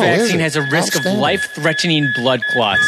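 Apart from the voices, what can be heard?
electronic beep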